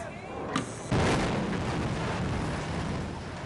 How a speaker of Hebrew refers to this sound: ואנחנו זוכרים את אה, פיצוץ אה, גשר מעריב עם ישראל כץ, אה, ועד היום זה לוקח זמן. אחת, פיצוץ!